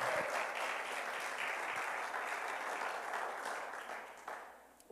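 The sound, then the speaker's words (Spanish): A crowd applauds all women on International Women's Day in a steady, dense wash of clapping that holds strong for several seconds, then begins to thin and fade toward the end, with no voices audible. “Un aplauso a todas las mujeres.”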